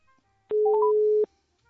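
A steady electronic telephone line tone sounds for under a second, with a few short rising beeps stepping up over it, then cuts off abruptly as the phone call connection drops.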